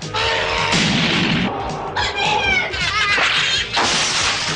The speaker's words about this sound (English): What is that? What are they? I'm sure that thing's a cat.